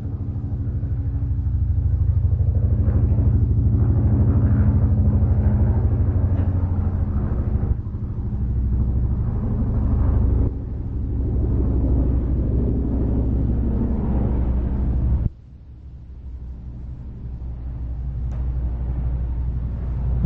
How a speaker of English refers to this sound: Now the noises of the street, helicopters, noises of the room